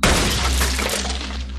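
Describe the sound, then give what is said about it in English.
A double-barrel shotgun blast splinters a wooden door, blowing a large hole in it: one loud crash with a dense burst of cracking, shattering debris that rattles on and slowly thins out over a second or two. “There's a deafening crash as a large hole blows in the door. Wood splinters and shatters in all directions.”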